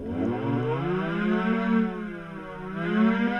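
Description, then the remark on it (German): A synthetic electric-car warning hum (AVAS) on one selected channel, pitched up by raising the pitch factor: a loud harmonic drone whose pitch sweeps upward and then holds at the higher pitch, with no voices present. “Wenn ich dann den Pitch-Faktor hier erhöhe, dann sollte man hören, dass ich hier.”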